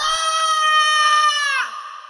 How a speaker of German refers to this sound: Adrianas Schrei, voller Verzweiflung und Ungeduld, hallt durch die anderen Räume und Gänge